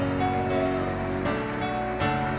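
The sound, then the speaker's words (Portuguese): An audience claps together, applauding the Lord, in a dense, steady wash of applause that stays loud throughout, with sustained musical tones holding underneath. “Aplauda o Senhor pelas coisas grandes que Ele fez.”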